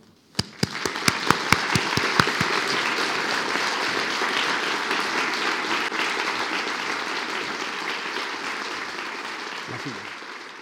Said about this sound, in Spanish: Entonces, para todos ustedes, pido para Adolfo Perales un pequeño aplauso para recibirlo con calor.